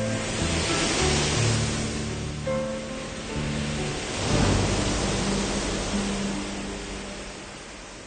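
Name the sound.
ocean waves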